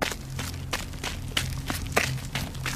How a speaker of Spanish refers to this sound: el sonido de una persona corriendo sobre las piedras en esta ocasión sí me alertó por completo, pues claramente pude sentir que aquel espíritu rodeó la parte de enfrente del camión.